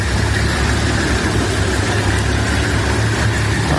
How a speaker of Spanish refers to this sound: uno de los sonidos de esta noche, que lo han difundido los de Hamas, es el de los camiones con ayuda humanitaria entrando en el paso de Rafa.